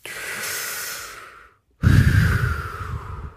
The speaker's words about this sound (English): Everybody, take a deep breath.